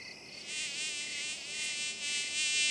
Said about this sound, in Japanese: 蚊がいる